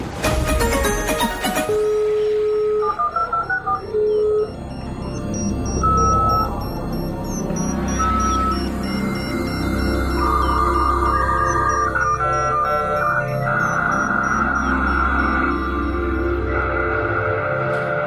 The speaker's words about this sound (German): Dieser Sound bedeutet, ihr seid im Chaosradio angekommen.